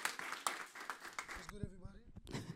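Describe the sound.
A crowd claps and cheers in a dense, steady burst of applause for about a second and a half, then it drops away as a voice starts talking over the fading clapping.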